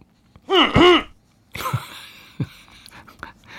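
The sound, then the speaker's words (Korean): Someone clears their throat: a short voiced grunt, then a couple of rough, raspy throat-clearing bursts, fairly loud, with no talking. “네, 헛기침 소리입니다.”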